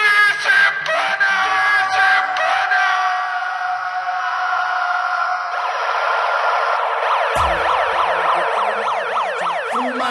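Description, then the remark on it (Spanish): A loud siren sweeps up and down in rapid repeating wails, overlapping a steadier tonal blare, filling the whole stretch without any talking. “La sirena, eh, Pero aparte, justo, la, primera sirena que es por una buena noticia en general.”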